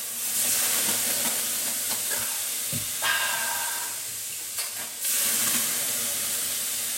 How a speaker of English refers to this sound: Yeah, it'll because like the, uh, the, the yeah it just fogs up really quick because due to the, due to the steam.